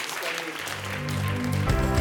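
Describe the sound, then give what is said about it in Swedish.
Warm applause at a Skövde Pingst church gathering, a steady wash of many hands clapping that holds throughout, while a sustained musical tone swells underneath and grows louder toward the end. “För nu ska vi ge de här eh, goa människorna en varm applåd.”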